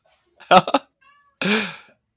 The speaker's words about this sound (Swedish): Nu hoppade min katt upp på bordet här så jag måste... Ja, det, är passande. Ja, katten med. Han bara, hörde jag katt?